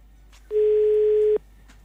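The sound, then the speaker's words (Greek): A single steady electronic telephone tone, a flat mid-pitched hum lasting just under a second, loud and clear against a quiet background, with no one talking, before a phone call to a government minister. “Γιατί δεν παίρνει τον Υπουργό να το πει. Θα πάρω.”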